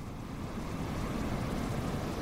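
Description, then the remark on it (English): A steady wash of Mediterranean surf on a beach about 10 miles from Gaza City, a constant rumbling hiss with no distinct crashes, even in loudness throughout, with no voices. “Here on this beach, long pipes spew brown water into the ocean, just 10 miles from Gaza City.”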